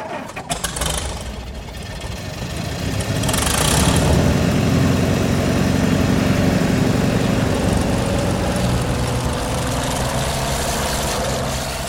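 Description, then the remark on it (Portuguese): A car engine runs with a steady, low rumbling hum that swells louder after the first few seconds, then holds at an even idle, with no voices, as two cars stop in front of a church in the morning. “vocês param com os dois carros na frente da igreja que eu descrevi antes.”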